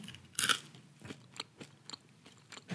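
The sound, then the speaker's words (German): Crisp crunching as someone bites into and chews crunchy crickets seasoned with tomato and basil flavouring: one loud first bite, then a steady series of smaller crackly chews, with no talking. “Wie viele soll ich denn rein, damit sich der ganze Geschmack entfaltet?”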